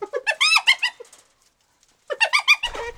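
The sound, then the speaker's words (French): A spotted hyena's laughing call: two loud bursts of rapid, high-pitched, stuttering giggles separated by about a second of silence, with no one talking. “Le rire de la hyène”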